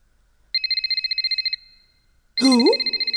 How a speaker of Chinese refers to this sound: 你来图书馆，手机竟然没有调成静音，被我抓住了吧？